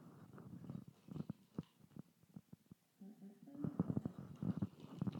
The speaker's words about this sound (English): I need to have a sip of my coffee. Hold on.